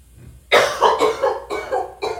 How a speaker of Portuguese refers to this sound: Desculpa. Meu Deus. Aquela tossezinha. A tosse de cachorro magro, né?